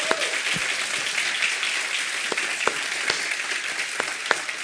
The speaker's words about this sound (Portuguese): Esse pessoal trabalhou muito ao longo do final de semana para que a gente tivesse um evento como teve. Então eles merecem uma salva de palmas. Vamos dar um aplauso.